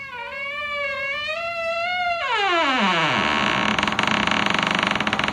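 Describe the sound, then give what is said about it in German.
A creaky door-opening sound effect played as a sound file on a PC, not a real door: a long, wavering squeak slides downward in pitch, then turns into a loud, raspy, rattling buzz. It plays on its own with no one talking. “Ihr glaubt doch nicht ernsthaft, dass ich hier irgendeine Tür geöffnet habe. Das ist einfach nur so ein Soundfile auf dem PC.”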